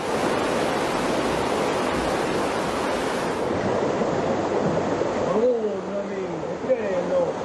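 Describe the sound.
A loud, steady roar of muddy floodwater rushing through the streets of Monteforte Pino, province of Avellino, Campania, in southern Italy, during a severe flood caused by a terrible storm, fills the whole recording, with a voice speaking over the torrent toward the end.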